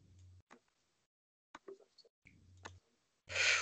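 Several sharp, quick clicks as someone clicks on targets in an aim test of 30 targets, landing in quick succession, separated by short gaps, followed by a brief louder burst of noise at the end.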